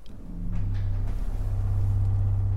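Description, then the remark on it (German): A deep, sustained organ pedal tone, the organ's lowest note, from a 16-foot pipe, a low steady rumble that swells in within the first half second and holds at full strength, with no voices. “Und 16 Fuß Pfeife, das ist dann der tiefste Ton natürlich.”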